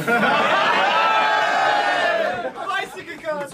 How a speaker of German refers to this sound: Und jetzt will ich Applaus.